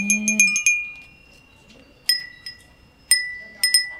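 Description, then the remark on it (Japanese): Bright, ringing glass wind chime with a daruma pattern, at the Yoshidaya shop, tinkles in several clusters, each strike sharp and sustaining with high overtones, spaced irregularly over a few seconds, fairly loud against a quiet background. “これがガラスの、だるまの柄の風鈴です。”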